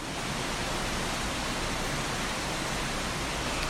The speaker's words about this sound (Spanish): Hoy es otro episodio desde aquí, desde la playa. Se está soltando una lluvia poderosa eh, mientras escuchan las olas, así que te vuelvo a pedir una disculpa. Pero es el mejor momento que encontré para compartirte esto. Escucha un poco la lluvia.